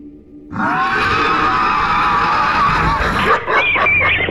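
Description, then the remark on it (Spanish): Dogs bark and snarl loudly and continuously, with overlapping yips and harsh growls filling the whole stretch after a brief quiet start. “¡Cállense, bastardos! ¡Solo cállense cállense bastardo solo cállense su gruñido esta vez nos hizo caer”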